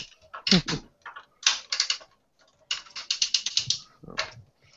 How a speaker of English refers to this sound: I really liked the ratchet noise that it made as it turned